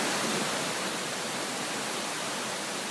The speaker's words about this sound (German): It's now raining reasonably hard. Ähm, Mittlerweile regnet es ziemlich stark. Wir sind ja in einer Region des tropischen Urwalds. Deshalb ist das das Wetter, was man durchaus erwartet.